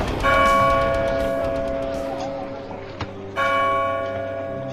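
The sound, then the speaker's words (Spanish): A church bell tolls a death knell on All Souls' night, with a loud, ringing strike that hangs and slowly fades, then a second strike near the end renews the ringing. The tone is rich and sustained, with no voices. “La noche de difuntos me despertó a no sé qué hora el doble de las campanas.”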